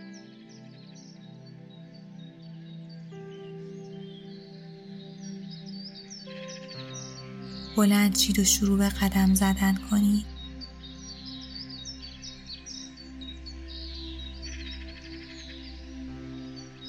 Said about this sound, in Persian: صدای پرنده ها و جیرجیرک ها در اطرافتون به وضوح شنیده میشه.